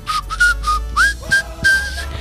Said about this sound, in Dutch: Ehm, ik, ik floot daar ook in.